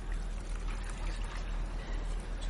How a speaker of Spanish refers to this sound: Echa agua en el envase.